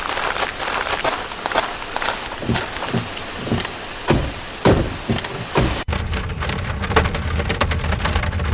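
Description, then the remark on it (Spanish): Heavy rain from an approaching thunderstorm pours steadily in a forest, with sharp splatters and a low, rolling rumble beneath, then abruptly turns duller and more muffled, with no voices. “Uy, ¿escucharon eso? Mejor vamos al auto que se viene una retormenta.”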